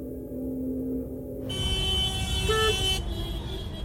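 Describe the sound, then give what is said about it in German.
Busy road traffic in the West Bank rumbles steadily, heard from a taxi, while a car horn blares for a sustained stretch in the middle, with a brief second honk overlapping it, loud amid the engine noise. “Unser Taxifahrer … flucht routiniert über den Verkehr.”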